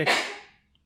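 A single sneeze: a sudden, forceful burst of breathy noise that quickly fades away, with no talking around it.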